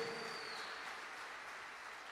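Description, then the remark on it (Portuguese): A crowd claps steadily for about two seconds, a dense, even wash of hand claps at moderate level, with no voices standing out and a faint high tone early on. “Melhor esse aplauso aí.”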